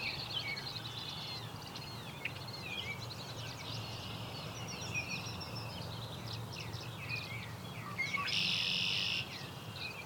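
A killdeer gives the call it is named after, repeated thin shrill notes over a steady outdoor hum, with a brief insect buzz near the end.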